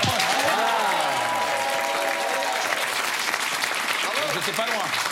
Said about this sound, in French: Attendez, ça s'applaudit.